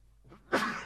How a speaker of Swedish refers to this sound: Prosit! Jag är så upprörd. Du är så upprörd så att du nyser åt dumheter.